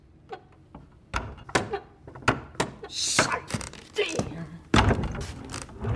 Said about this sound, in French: Pourriez-vous ouvrir une fenêtre, s'il vous plaît